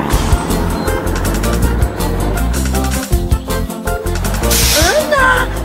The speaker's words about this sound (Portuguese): caminhão chegou. Pontual como sempre.